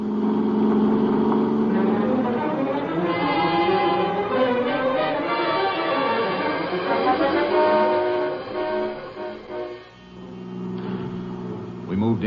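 A car engine roars steadily and climbs in pitch as it accelerates with the driver's foot heavy on the gas pedal, its droning tone rising and falling through the run before dipping briefly near the end, then pulling hard again.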